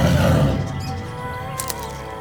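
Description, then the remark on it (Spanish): A deep, loud tiger roar swells at the start and trails off into a rumbling growl, heard alone, in a dense jungle on an island. “¿Un tigre? ¿Cómo puede haber un tigre en la isla?”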